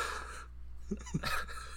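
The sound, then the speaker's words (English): A quiet, breathy gasp from a jury, a sharp intake of air followed a moment later by a second airy breath, with faint murmured vocal sounds between them and no clear speech. “Sorry, we have an audible gasp from the oh, jury.”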